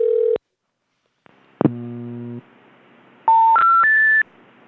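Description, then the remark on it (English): Telephone keypad tones play alone as a call is dialed: a steady beep, a short pause, a low buzzing tone, then three quick electronic tones climbing in pitch, clear and loud. “Who the hell am I calling now?”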